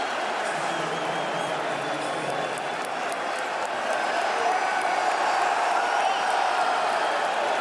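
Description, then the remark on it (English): A large arena crowd of Raptors fans roars and cheers steadily throughout after an opposing player goes down injured, a dense, continuous wash of voices with scattered whoops, holding fairly even in loudness and rising slightly toward the end. “They don't like to hear the fans yeah, cheering.”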